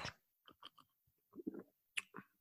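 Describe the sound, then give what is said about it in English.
Someone slurps a thick, sweet 4% alcoholic drink smelling of guava and strawberry, a few short wet sips coming in quick irregular bursts, fairly quiet, with no talking. “Let's, uh, you know, I like to slurp this on air. Let's hear this. Slurp, slurp, slurp.”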